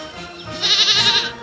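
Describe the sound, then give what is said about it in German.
A goat on a farm gives one wavering, nasal bleat lasting about half a second, fairly loud, with a faint background hum before and after. “Am Nachmittag ist es ein bisschen kompliziert, weil er hat viel zu tun mit den Ziegen.”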